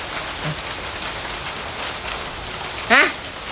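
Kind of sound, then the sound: nature, rain falling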